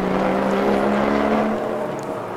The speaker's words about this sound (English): Axcil Jefferies being waved on his way out of the pits and that, as I say, is the second pit stop for the Konrad Lamborghini